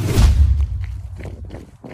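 Running footsteps of a person running up a hill on a forest trail: a heavy low thump at the start, then a quick series of soft, uneven strides over a dull rumbling background.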